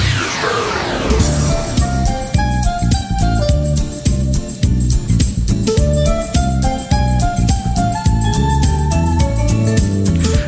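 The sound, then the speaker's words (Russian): A loud, upbeat instrumental call-sign jingle of a St. Petersburg radio program opens with a quick rising sweep, then bright melodic music with a steady driving beat plays for about ten seconds, with no one talking. “Вы слышите, дамы и господа, знакомые позывные?”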